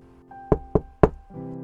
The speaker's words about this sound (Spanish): Pasaron un par de horas y alguien tocó a la puerta.